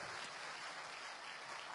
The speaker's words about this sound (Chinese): 同样，用热情的掌声欢迎大家！